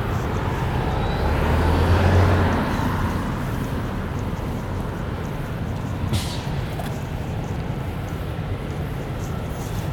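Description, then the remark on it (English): Fire trucks rumble past, a loud, steady low engine roar that swells briefly early on, with a short hiss of air partway through and no talking. “Any more fire trucks, there'll be more trucks than buses.”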